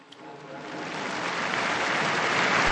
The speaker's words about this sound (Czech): Un aplauso al nuevo beato.